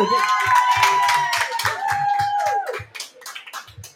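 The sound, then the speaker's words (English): An audience bursts into loud, dense clapping and cheering for a grandfather, with a shrill sustained whistle riding over it, then the applause thins out to a few scattered claps. “Let's clap it up better for Grandpa on that.”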